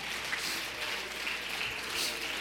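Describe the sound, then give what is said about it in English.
An audience claps their hands to thank God during a sermon, a steady, sustained burst of applause with no voices clearly standing out over the clapping. “I think we ought to all stand for a minute, clap our hands, and thank God for His mercy.”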